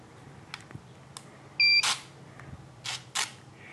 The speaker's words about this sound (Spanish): Ahora voy a encender el Blind Me. Cuando viene de fábrica, con los ajustes de fábrica, tiene un pitido que se puede desactivar, que ahora lo van a escuchar.